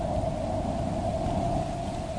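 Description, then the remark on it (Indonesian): Heavy rain pours down during a journey home from Dieng, in a steady, dense hiss with a low rumbling undertone, loud and unbroken throughout, with no voices. “Ketika perjalanan pulang, hujan turun sangat deras.”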